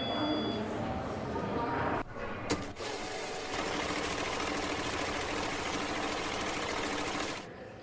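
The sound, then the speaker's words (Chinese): A banknote counting machine at a bank counter in Taiwan, counting out withdrawn money, whirs in a rapid, fluttering rattle: a short burst, a brief pause with a click, then a longer steady run lasting several seconds before it stops. “呃，我这一段是在民众到银行取号码牌，在大厅等候叫号声，嗯，然后叫号灯响后前往柜台领款点钞机的声音。”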